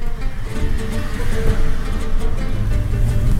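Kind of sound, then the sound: vehicle, car approaching on road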